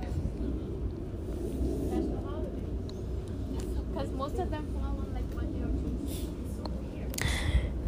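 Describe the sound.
Busy outdoor ambience on a large workplace campus, with several people walking around and talking loudly, voices overlapping under a steady low rumble of traffic or machinery, with occasional brief higher clatters.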